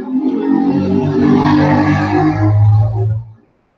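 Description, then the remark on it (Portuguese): A motorcycle roars past, its loud engine whine rising and falling as it goes, then cuts off abruptly into silence. No one speaks. “estava esperando a moto passar.”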